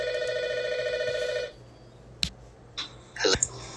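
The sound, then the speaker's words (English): A phone rings with a steady electronic tone for about a second and a half, then cuts off abruptly, followed by a sharp click and a few soft handling noises. “All right, sorry about that, guys. Had the phone call.”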